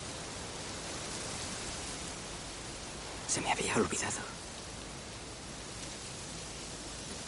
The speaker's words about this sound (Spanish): El ruido del viento entre las hojas. Por ese ruido me gusta la primavera.